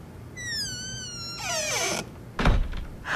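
A cat meows a couple of times, drawn out and whiny, followed by a single solid thud of a door being shut. No one speaks.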